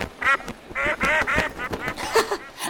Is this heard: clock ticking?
no